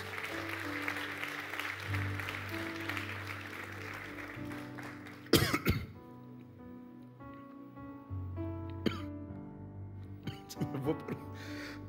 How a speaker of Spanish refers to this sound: Vamos, dale un fuerte aplauso si tú lo crees.